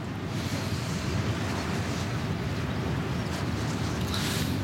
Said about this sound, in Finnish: Joo, kyllä tämä tuuli on tällä hetkellä niin kova, että veikkaan tämän alueen sisiliskoista sen verran, että ne ei kyllä tuu tällä kertaa sitten mihinkään kiven kylkeen.